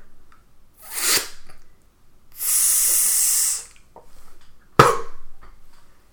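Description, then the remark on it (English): Sparklers and a couple of firecrackers fizzing in place of a promised exploding ring: a short burst of hiss, then a steady bright sizzle for about a second, followed by a sharp crack that trails off into a fading fizz. “Sparklers and a couple firecrackers, and that's it.”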